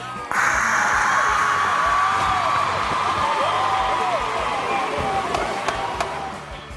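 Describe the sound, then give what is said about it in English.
A loud studio audience cheers wildly, bursting in suddenly and roaring steadily for several seconds, with scattered whoops and shouts rising above the wash of noise before it eases slightly at the end. “No, let's just turn it over to the studio audience, and the crowd goes wild.”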